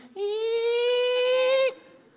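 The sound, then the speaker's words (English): A voice imitates a screaming kinked hose with one sustained, shrill, slightly rising wail of about one and a half seconds, loud and steady before cutting off abruptly. “If you turn the hose on and you got a kink in the hose, hose starts screaming,”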